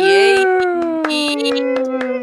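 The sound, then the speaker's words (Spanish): About ten sharp hand claps in a steady, moderately quick rhythm, sounding over a loud, sustained tone that slowly slides downward in pitch. “Ah, y recuerden que mientras no dejen de aplaudir, no dejamos de jugar.”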